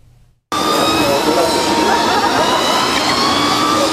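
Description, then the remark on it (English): After a brief quiet moment, a loud, steady high-pitched electric whine with broad rushing noise kicks in and holds as electric racing scooters, developed by Taiwan's Industrial Technology Research Institute, whiz down a racetrack in Taoyuan, Taiwan, during a road racing event. “At this racetrack in Taoyuan, the electric scooters whizzing down the track were developed by the Industrial Technology Research Institute.”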